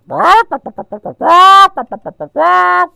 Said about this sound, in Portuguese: Lá veio a galinha.